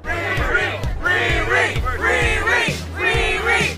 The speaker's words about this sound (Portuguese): E ainda eles começaram a gritar o nome dela para ver se ela dava as caras. É o que a gente faz isso no Twitter todo dia. Eu entendo esses jornalistas gritando. Escuta isso que os jornalistas estão falando.